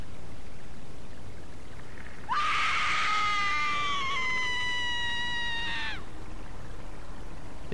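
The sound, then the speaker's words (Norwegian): A single piercing, deafening scream rises sharply and holds for several seconds at a steady, shrill pitch before cutting off, loud against a quiet background with no talking, in an otherwise dead-silent street of a small neighbourhood at Byneset on a rainy autumn day. “Et øredøvende skrik skjærer gjennom luften i den ellers dødelig stille gaten.”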